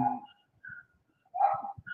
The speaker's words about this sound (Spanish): creo que es un perro ladrando, si no se callan, pues cierro la ventana.